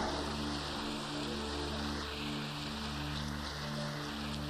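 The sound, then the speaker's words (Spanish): An audience at a Spanish-language church service applauds the King of Kings in a dense, steady wash of clapping that holds at an even level for several seconds, with a low sustained tone humming underneath and no voices. “Demos un aplauso al Rey de Reyes.”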